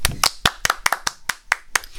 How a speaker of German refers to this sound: Applaus!